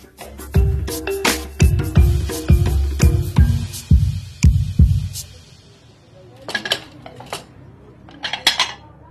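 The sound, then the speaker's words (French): Ceramic bowls and dishes clink and knock together as a girl and her father pack them into boxes in a small home in the Tindika slum, a quick irregular series of sharp impacts, then a quieter pause before a few more scattered clatters near the end. “fais attention aux bols. Il faut bien les emballer.”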